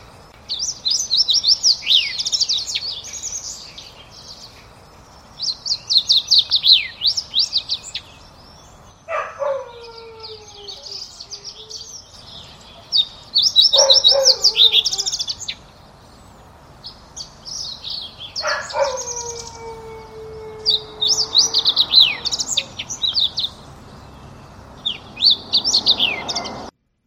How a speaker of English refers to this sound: so again, that was the fox sparrow, and uh, fox sparrows to me they have those sliding whistles that are in there, uh, and most similar to a song sparrow. Both of these are going to be largish brown uh, sparrow-like birds.